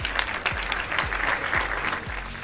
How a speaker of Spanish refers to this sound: Y es que, es que quiero mandar otro aplauso para ellos, para todos estos grandes profesionales. De verdad, gracias. Gracias.